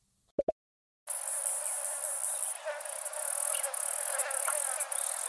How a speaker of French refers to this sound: Et pour se concocter un riche panier repas bien diversifié, elles imitent les cliquetis des femelles cigales de plusieurs espèces différentes.